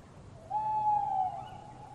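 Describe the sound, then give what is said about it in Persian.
A single owl hoot rings out clearly, a steady tonal call lasting under a second, among trees in a green, forested valley, over a soft, low background hush like a quiet forest at night. “ماشین رو با فاصله پارک کرده و از آن پیاده شدن آرام لابلای درختان پیش رفتن صدای جغت ها و سایه های روی درختان فضایی مرموز را تدایی می کرد.”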